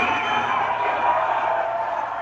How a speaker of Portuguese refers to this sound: Na prática, a vaia primeiro intimidava o artista depois, o próprio cantor assimilava o barulho e seguia cantando. Se o público gostasse, as vaias viravam aplauso.